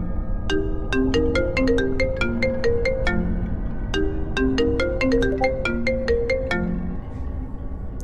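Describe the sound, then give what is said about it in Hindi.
A phone rings with a bright, melodic ringtone, its tinkling tune playing through twice in a steady loop, clear and fairly loud, with no voices over it. “phone का sound धीरे धीरे बढ़ने लगा अचानक से साउंड बंद गया और तभी एक कॉल आया”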